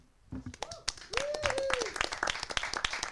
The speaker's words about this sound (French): qu'on peut encore une fois applaudir.